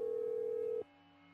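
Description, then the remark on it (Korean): A steady telephone ringback tone from a call placed on a home landline phone at dawn hums over the line for most of a second, then cuts off abruptly, leaving a faint low electrical hum. “아버지가 옛날에 쓰시던 핸드폰을 찾아 전화 번호부를 뒤져 큰아버지 번호를 찾은 다음 곧바로 집 전화로 전화를 걸었다.”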